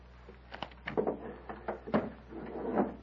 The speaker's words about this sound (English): Come into the next room. Close the door